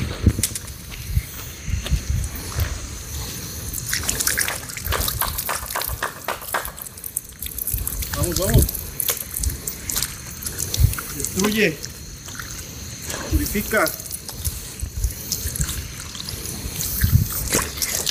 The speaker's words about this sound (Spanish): Échame agua acá, güey.